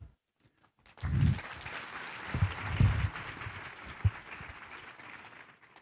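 An audience breaks into steady applause after a brief quiet moment, the dense clapping holding for several seconds with a few heavier thumps and bursts mixed in before it begins to thin out.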